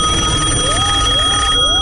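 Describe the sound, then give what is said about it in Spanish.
An old home telephone bell rings loudly and continuously, its steady metallic tone holding with a rough, buzzy texture and small repeating rises in pitch. “¿Recuerdas el antiguo teléfono de casa y su clásico timbre?”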